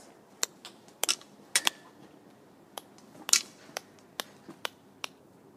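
A string of sharp, bright tongue clicks, about a dozen, spaced irregularly with a few in quick pairs, each followed by a brief ringing tail, made by a person echolocating while walking back and forth beneath a corrugated metal roof two meters high over bicycle racks, finding by echo where the roof ends.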